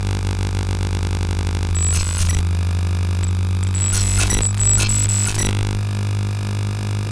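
A dense, buzzing electronic drone of a camera's video signal rendered as sound, with a steady low hum and bursts of shrill glitchy tones flaring up midway, continuous and loud with no voices.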